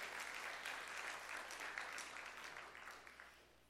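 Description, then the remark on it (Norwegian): A church audience applauds warmly for a baby being lifted up for them to see, dense clapping from many hands, steady, then gradually thinning and fading toward the end. No one speaks over it. “Eh, og da kan du jo løfte henne opp, og så kan dere klappe for denne vakre, lille babyen”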